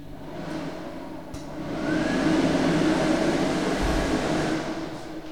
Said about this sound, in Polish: Mogę włączyć suszarkę.